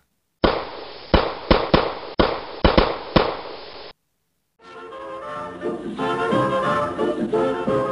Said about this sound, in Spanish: Por fin, los cinco hombres han roto los candados de las puertas enmalladas. Desde adentro, alguien los repele a tiros.